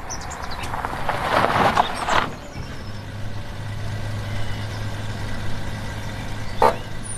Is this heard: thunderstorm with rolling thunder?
no